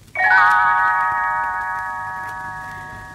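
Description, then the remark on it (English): A single bright chime of small bells strikes sharply, then rings on with clear, layered tones that slowly fade over a few seconds, alone with no voices. Tinker Bell rings the bells as the page-turn signal on a read-along storybook record. “You will know it is time to turn the page when Tinker Bell rings her little bells like this.”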